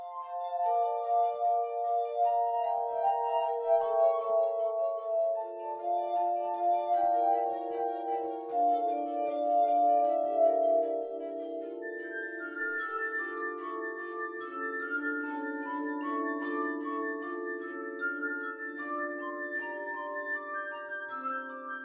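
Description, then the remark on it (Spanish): A glass harp played with wet fingers performs Johann Sebastian Bach's Toccata and Fugue in D minor: sustained ringing tones overlapping in a flowing, organ-like melody with shimmering high overtones, steady and moderately loud, with no voices. “esta tocata y fuga en re menor de Johann Sebastian Bach, interpretada gracias a la alianza entre el cristal, el agua y los dedos humanos”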